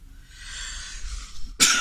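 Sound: sneeze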